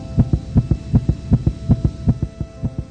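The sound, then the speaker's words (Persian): A steady heartbeat thumps in paired lub-dub beats, about eight cycles at a regular, fairly quick pace, low and muffled with a faint hum underneath and no voices. “این صدای قلبته خودت هیچی نمیگی اما قلبت داره داد میزنه دیوونه”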